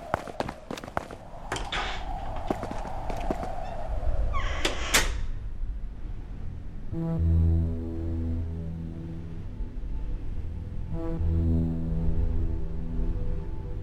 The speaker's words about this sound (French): déplace une barrière en la faisant grincer au sol.